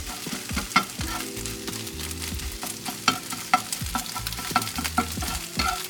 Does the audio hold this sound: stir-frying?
yes